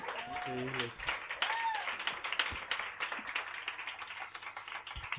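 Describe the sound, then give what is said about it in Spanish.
An audience applauds a choir steadily for about five seconds, a dense crackle of many hands clapping, with a few voices calling out and cheering over it near the start. “que acompaña este pedazo de coro que hemos tenido aquí, que al cual quiero agradecer un fuerte aplauso.”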